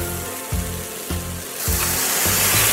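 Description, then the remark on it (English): Water splashes into a hot pan of potatoes partway through so they cook fast, and a steady hissing sizzle rises and continues to the end, with a soft rhythmic musical backing underneath. “Once we add the potatoes, I'm going to add a bit of water so that the potatoes cook fast.”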